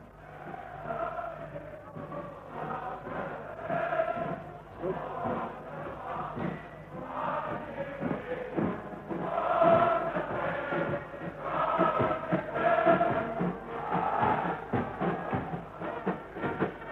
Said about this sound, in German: Wir stehen am offenen Fenster. Sie können jetzt besonders gut hören. wie die Menge jubelt. Wir lassen Ihnen noch einen Augenblick die Musik von draußen ins Fenster hereinschallen.